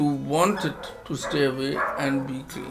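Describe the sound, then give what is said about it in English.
A person speaks steadily, recording on a phone, while a dog barks a few times in the background, the sharp barks coming in short bursts that sit partly under the voice. “I'm so sorry about the background dogs barking, but I can't help it.”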